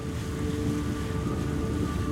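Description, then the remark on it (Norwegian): Water rushes steadily past the bow of a large Viking ship sailing north along the west coast of Norway as fast as it can, its red-and-white striped sail filled with wind; a dense, continuous wash with wind noise mixed in and a faint tonal hum underneath. Fairly loud, with no voices. “Det fosser foran baugen på et stort, flott vikingskip som seiler nordover langs vestlandskysten så fort det går an.”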